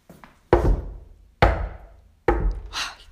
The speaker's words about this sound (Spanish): Cuando la mamá eh, ya se había ido hace bastante, eh, oyen los chicos unos golpes en la puerta.